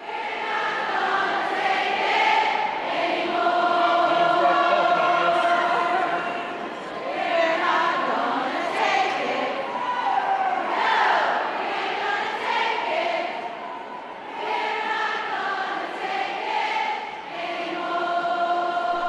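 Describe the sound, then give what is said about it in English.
A large crowd of teachers sings a protest song together, many voices blending into one steady, loud melody with long held notes and a brief dip in volume partway through. “but it sounds very different when the teachers sing it.”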